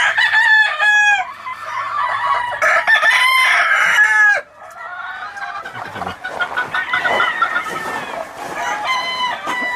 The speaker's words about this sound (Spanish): Este gallito tiene 5 años. Yo generalmente no lo uso, pero es un extraordinario reproductor. Entonces, estoy viendo si pues todavía le saco algunos este, esta temporada, ojalá se pueda. Ojos rojos, rojos. Sí, es un es un excelente gallo.